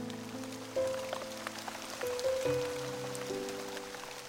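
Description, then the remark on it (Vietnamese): Steady rain patters on a hard surface in a continuous soft hiss as it floods a city street, with sustained low humming tones running underneath and no one speaking. “Ông Tư ngồi nhìn mưa mà não cả ruột Đường phố bây giờ đã linh láng nước”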